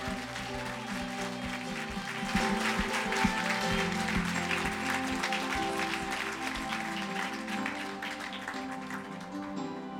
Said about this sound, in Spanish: Dar un aplauso a Cristo. Aleluya.